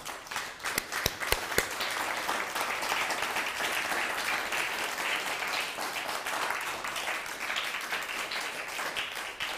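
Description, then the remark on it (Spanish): A crowd applauds steadily, a dense wash of many hands clapping that holds at a fairly loud, even level throughout, with a few sharper individual claps standing out near the start. “Ahora sí, un fuerte aplauso, por favor.”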